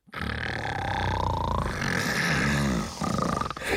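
A loud, rasping snore drones on for nearly four seconds, harsh with a rough, roaring rattle, voiced by a person imitating heavy snoring, portraying two men snoring in a room.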